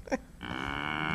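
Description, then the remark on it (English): A cow moos once in a long, steady, low drone that holds at an even loudness until the end, preceded by a short soft vocal noise. “No, that's, that's a cow. That's for the moo.”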